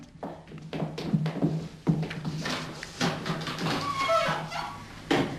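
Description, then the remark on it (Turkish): A door is opened with a series of uneven clunks and knocks, handling and latch noises, and a brief faint squeak partway through, with no one speaking. “Sonra kapıyı aç çabuk çabuk”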